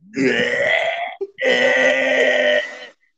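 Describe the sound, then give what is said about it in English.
A person loudly imitates gagging and retching while vomiting, in two long, strained heaves separated by a brief gulping catch, harsh and guttural, with no talking. “So I go and I vomit, and I'm gagging.”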